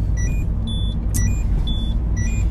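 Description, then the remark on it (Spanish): Steady low rumble of a car driving through city streets, heard as if from inside, with scattered short, high electronic chirps over the top and no one talking. “Y este Renault va, lleva todo, todo, todas las calles detrás mía pegado al culo, al culo de mi coche.”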